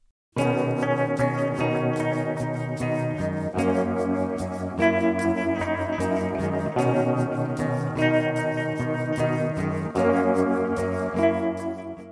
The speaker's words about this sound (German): Ich rede von Shoegaze und Dream Pop. Zwei Genres, die einer gemeinsamen Musikströmung entspringen, wenn ich es ganz simpel herunterbrechen soll, Musik, die verträumt, schwebend, manchmal schwermütig in der Bedeutung